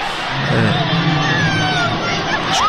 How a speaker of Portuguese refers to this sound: Uh, escutamos aqui o pânico. O momento em que o gato está preso. A queda e depois uh, os aplausos, a euforia depois desse, depois desse salvamento.